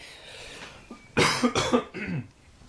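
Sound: coughing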